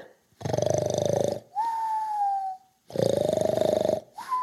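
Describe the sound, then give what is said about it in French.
Cartoonish snoring of Professeur Sapiens, who has fallen asleep, in two cycles: a loud, rattling, buzzy snore followed each time by a steady high whistle on the exhale, with no talking. “Oh non, le professeur s'est endormi.”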